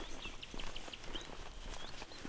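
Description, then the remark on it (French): A nightingale sings a run of short, high, clear notes at a steady pace, heard faintly over a constant rushing outdoor background. “Et le petit rossignol se fait entendre.”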